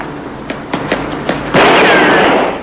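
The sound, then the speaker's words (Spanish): A few quick, light clicks lead into a single loud gunshot, fired by a pursuer at Hooker in the street, whose harsh blast lingers and rings out for about a second with no talking. “Sorteando el disparo, Hooker dobla por un callejón oscuro y sin salida.”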